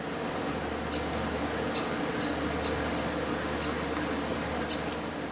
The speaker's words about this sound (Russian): Но в 2021 году мы все же узнали, что новорожденные летучие мыши мешкокрылы из Южной Америки несколько месяцев гулят совсем как человеческие дети. То есть они идут от простых вокализаций к сложным.